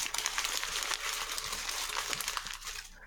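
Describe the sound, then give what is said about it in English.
Steady rustling and crinkling of paper being shuffled, a continuous dry scratchy texture lasting a few seconds with no voices. “Shuffling paper.”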